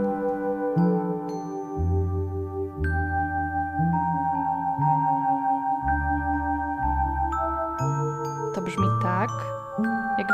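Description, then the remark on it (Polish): An electronic bell chime plays a slow, steady melody of sustained ringing tones over stepped low notes, with the pitch turning wobbly and unsteady near the end as if the chime were faltering. “Ten dzwonek brzmi tak, jakby za chwilę zdechł.”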